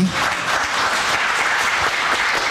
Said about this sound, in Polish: Dziękuję. Bardzo dziękuję panelistom. Proszę o klaski dla całej trójki.